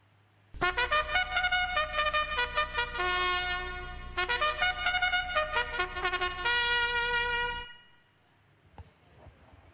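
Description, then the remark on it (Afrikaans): A trumpet blares a loud, bright call of held and shifting notes, pausing briefly midway before resuming and cutting off, leaving near silence. No one speaks. “Dis reg. 'n Trompet.”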